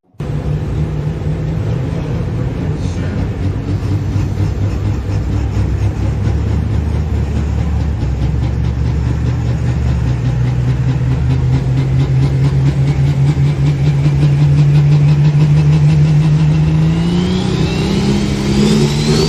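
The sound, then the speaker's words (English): The loud, heavy engine of an Allis Chalmers 80-30 pulling tractor drones steadily with a deep rumble, its pitch gradually rising and shifting near the end as the tractor comes to a stop after a pull, with no voices present. “The Allis Chalmer 80-30 coming to a stop.”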